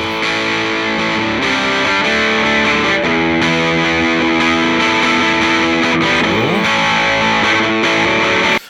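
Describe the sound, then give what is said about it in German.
Gritty, heavily distorted electric guitar played through an amp and recorded with two microphones blended together plays loud sustained chords that shift every second or so, with a brief sliding note near the end. Full-sounding, with no voices. “Und wir nehmen jetzt mal als Standard, nehmen wir jetzt erstmal das Grätzige und schieben mal das andere dazu.”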